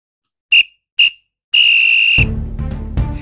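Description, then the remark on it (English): A referee's final whistle blows two short sharp blasts followed by one long sustained blast, loud, with the final note cutting into music or crowd noise that continues afterward. “Well, there goes the final whistle, and that brings this week's podcast to an end.”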